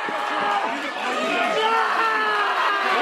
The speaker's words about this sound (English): Oh, here, did you hear the scream of Trent Seven?